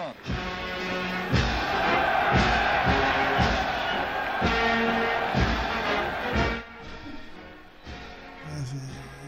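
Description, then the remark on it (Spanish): A huge stadium crowd at the opening of the 1936 Olympic Games in Berlin roars and applauds enthusiastically as the French team enters, a dense, loud wall of cheering that swells for several seconds before dropping to a quieter murmur near the end. “una multitud espectacular nos aplaudía con afecto y entusiasmo.”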